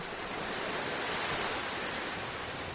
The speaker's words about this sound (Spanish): Y fíjate, escuchando de fondo el sonido del mar, ¿verdad?